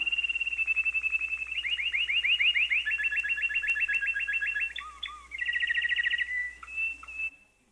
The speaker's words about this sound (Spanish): Pues resulta que el canto del pájaro es una conducta aprendida, como el habla en el humano.